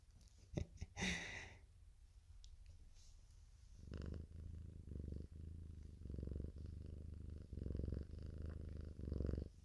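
A female cat purrs, a steady low rumble pulsing in regular breathing cycles, preceded by a brief burst of rustling as she is petted.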